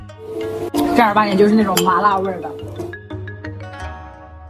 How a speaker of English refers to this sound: Street vendors cook the pebbles with spices, chili oil, and garlic on a sizzling grill.